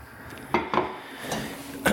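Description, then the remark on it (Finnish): A frying pan clanks and scrapes as it is set down and moved around while cooking, a few sharp metallic knocks with a brief ring, fairly quiet, with no one speaking. “ja sitten meillä on täällä pannu.”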